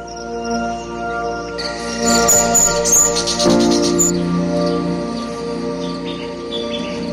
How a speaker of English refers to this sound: The yellow crowned bishop is a striking bird with its vibrant yellow crown and intricate black plumage.